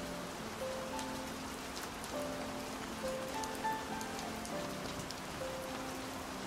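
Steady rain patters continuously over a surface at night, a dense hiss with scattered drops, while soft sustained piano notes play gently underneath.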